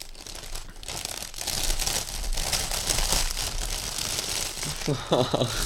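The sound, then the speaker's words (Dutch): Wrapping paper crinkles and rustles steadily as a birthday present, a baby snack board, is unwrapped, with a few sharper tearing sounds, and a voice briefly murmurs near the end. “Niet zomaar een cadeautje.”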